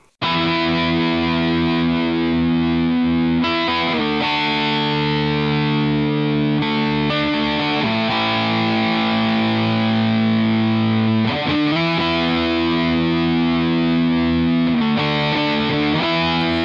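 Loud, dense rock music driven by heavily distorted electric guitars playing sustained power chords, with chord changes every few seconds and no vocals, steady and full throughout.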